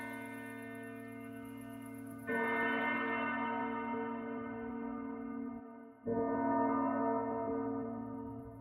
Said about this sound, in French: et bientôt il entend au loin le clocher qui sonne. Un coup, deux coups, trois coups, les douze coups de minuit.